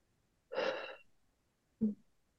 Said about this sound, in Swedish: Vi drar in luft genom näsan och fyller hela magen med en härlig positiv energi. Spänn ut magen, håll in andetaget och släpp ut när du är redo.